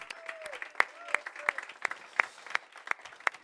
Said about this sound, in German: Geben wir Jesus einen gescheiten Applaus heute Morgen.